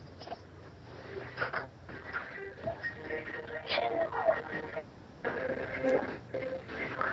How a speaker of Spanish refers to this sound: Ya, creo que hay mucha, mucha, mucha interferencia.